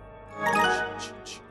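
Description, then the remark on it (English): A short, bright digital chime of a work messenger app on a phone rings out, a bell-like tone with a few quick sparkling accents trailing after it, clear and with no voices. “guilt gnawing at him, and the sound of his work messenger haunting him.”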